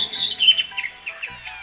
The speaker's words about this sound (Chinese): 知更鸟用它小小的声带吊着嗓子。